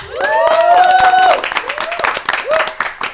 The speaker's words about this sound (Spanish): ¡Fuerte el aplauso!